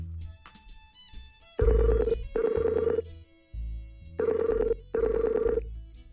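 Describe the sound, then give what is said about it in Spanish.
An electronic ringback tone of an outgoing call to a second person sounds in two paired bursts, each pair of rings separated by a pause, steady and moderately loud with a faint low hum underneath and no one speaking. “Vamos a llamar al otro entonces.”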